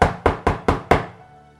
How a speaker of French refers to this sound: Une nuit, justement de grand froid, le papa de Tsi se trouvait dans l'auberge. On entendit soudain des coups à la porte.